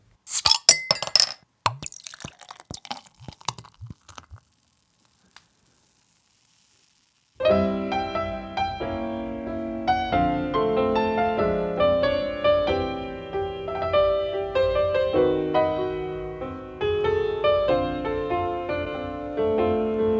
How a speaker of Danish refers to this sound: Der er ikke noget bedre end lyden af en flaske øl, der åbnes og skænkes.